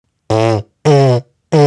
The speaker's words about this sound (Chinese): 那当我们在演奏乐器的时候啊，都是靠我们的嘴唇在震动，在发出声音的嘛。